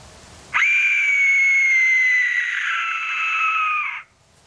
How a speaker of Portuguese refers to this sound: Um, só para perceberem co como é que soa este, um, este assobio